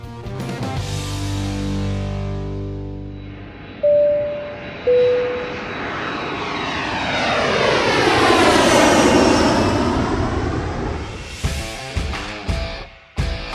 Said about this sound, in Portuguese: Então, hora da gente entrar no avião para a nossa volta final. Bora decolar!